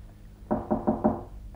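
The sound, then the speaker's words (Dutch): Four firm, evenly spaced knocks by a man on the wooden door of a lodger's room, fairly loud, with no voices, just a faint hush around them. “En daarna klopt hij met een bezwaard hart op de deur van Howard's kamer.”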